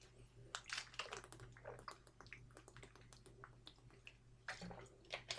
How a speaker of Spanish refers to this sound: Si no tenéis nada más que nada más que decir, pues yo bebo agua y ya, y ya cierro directo.